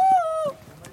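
A person whistles one sustained, fairly loud note that dips slightly in pitch and stops after about half a second, leaving faint room noise.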